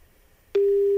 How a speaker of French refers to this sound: Mesdames et messieurs, notre huissier a fait le tirage au sort. Je suis en train d'appeler chez vous. Et vous n'avez le droit qu'à huit sonneries. C'est parti.